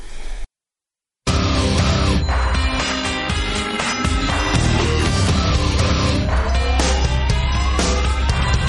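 Loud, dense hard rock with heavy distorted guitars and pounding drums; a talk box guitar slides upward in vocal-like glides. A brief short silence comes before the band crashes in.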